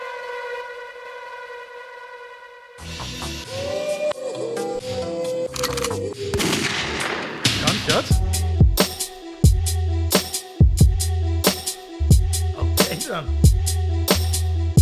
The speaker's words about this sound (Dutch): ik ben ready om, eh, om die beat te horen nu